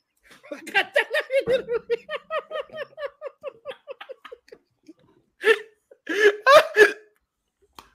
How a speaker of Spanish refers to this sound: me he dado hipo, huevón.